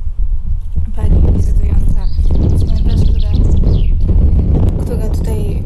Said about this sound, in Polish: Y, właśnie ten grób, nad którym śpiewa Zięba, więc y, muszę się tutaj wycofać.